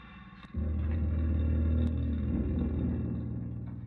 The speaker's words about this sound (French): Donc vous écoutez en ce moment la musique assez angoissante, euh, il faut dire. c'est de l'industriel électro, c'est comme ça à peu près que je le euh, que je le classerais, mais c'est vraiment euh, pas agréable à écouter.